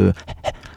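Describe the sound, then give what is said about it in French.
A man imitates a dog panting, as he imagines a dog turning into a man would sound: a short voiced sound, then four quick breathy huffs in a steady rhythm, fairly quiet. “Les chiens, ils sont pas toujours en train”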